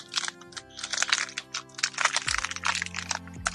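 Rapid, crackly crinkling and crunching as an individually wrapped rice-cracker (arare) package is opened and the crackers crunched, in dense irregular bursts over a low steady hum, with no talking.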